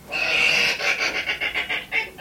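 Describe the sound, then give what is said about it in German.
A hedgehog's raspy, wheezing calls: a sustained hoarse squeal followed by a quick series of short, puffing bursts, fairly loud, with no talking. “Das ist, genau, das ist der Igel.”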